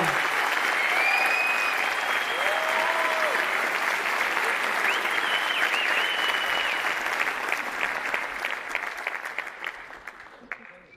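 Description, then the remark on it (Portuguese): Sustained audience applause, a dense crackle of clapping with whistles and cheers rising over it, holding steady for several seconds before thinning out and fading at the end. “Então, mais salvas palmas”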